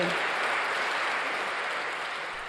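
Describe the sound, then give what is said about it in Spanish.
Steady, dense audience applause after a pledge of the largest tax cut in the history of the Community of Madrid, a broad crackling wash of many hands clapping at once, loud and sustained with no voices rising above it. “Mayor rebaja de impuestos de la historia de la Comunidad de Madrid, aplausos.”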